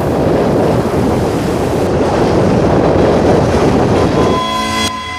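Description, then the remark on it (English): A loud, continuous roar of heavy ocean waves with foamy crests on brown water crashing and churning on a beach, steady throughout, with the droning horn-like tone of a train rising near the very end. “Cal heard the thundering waves, then, emerging from that, the sound of a train.”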